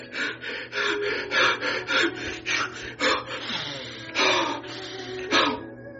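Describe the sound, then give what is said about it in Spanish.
A person demonstrates shallow, irregular, spasmodic breathing: quick, uneven gasps and puffs, a rapid irregular series of sharp inhales and exhales, with no talking. “Respira en espasmos llanos e irregulares.”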